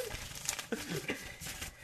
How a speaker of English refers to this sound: Are you ripping off paper? No.